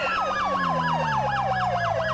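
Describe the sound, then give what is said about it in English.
A police car siren wails loudly in a rapid, repeating rise-and-fall yelp, steady throughout, as the police car goes onto a highway, with engine and road rumble underneath and no one talking. “Oh, uh, oh, a police vehicle car left on the highway entry uh, um, near uh, it's the route uh, 30.”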